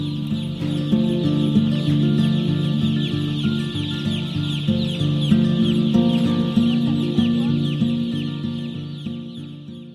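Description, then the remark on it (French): A dense chorus of many hens clucking at once inside an industrial poultry house, a constant loud murmur of overlapping calls with no one talking, easing off slightly at the very end. “aucun autre volailler n'a accepté de me faire visiter son poulailler industriel.”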